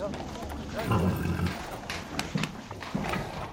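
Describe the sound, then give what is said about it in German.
Horses and people bustle about at festival grounds being prepared for knight games a week away, hooves clip-clopping in irregular bursts with a few sharp knocks, over a busy low rumble of activity. “Dann endlich erfüllt sich nach vier langen Jahren wieder der Lebenstraum vom Ritterspielen und von der Formel 1 mit Pferden wo ab nächster Woche das Publikum begeistert jubeln wird, wuseln jetzt Menschen und Pferde durcheinander.”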